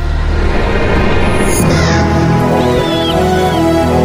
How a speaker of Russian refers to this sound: каждый день он вспоминал о том, что когда распахнул дверь маяка и выкрикнул имена смотрителей – с крыши башни взлетели три огромные черные птицы. Таких в своей жизни он не видел никогда.